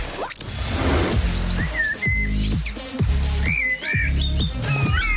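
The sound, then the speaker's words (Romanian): Bright, high hummingbird chirps and short whistled tweets repeat over a steady, rhythmic low backing that sounds like music, with no talking. “Dar știi ce păs- pasăre e? Colibri.”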